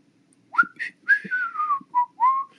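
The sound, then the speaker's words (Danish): A person whistles a short, wavering tune of about six clear notes, gliding up and down in a steady rhythm, fairly loud with no talking. “Eller folk, der går rundt og fløjter.”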